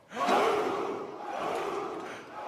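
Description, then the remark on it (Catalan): A crowd of men bellows a loud, sustained war cry in unison, one continuous roar that swells quickly and holds for a couple of seconds, like soldiers shouting together. “Crec que hi havia algun equip que feia aquest crit i tot a dins del vestidor.”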